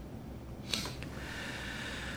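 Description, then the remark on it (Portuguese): A single quick, wet nasal sniff from a nose congested by allergic rhinitis, followed by a faint second snuffle and then a low steady background hiss. “Quando há um pouco de obstrução nasal, essa, esse fungado é desagradável.”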